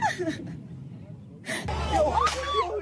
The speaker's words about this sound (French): Puis c'est la panique sous les tirs, les pleurs de la jeune fille qui dansait